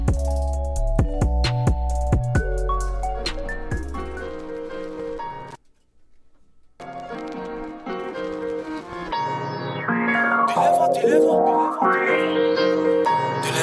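An Italian rap freestyle track plays loud: a heavy bass-driven beat, a sudden brief dropout, then the music returns with swooping synth sweeps rising and falling over it.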